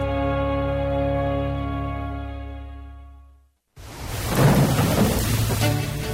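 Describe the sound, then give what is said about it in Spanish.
A sustained tonal chord fades into a brief silence, then a loud thunderstorm bursts in: steady heavy rain with low rumbling thunder that swells toward the end. “Si llueve en Quito, sigue las siguientes recomendaciones.”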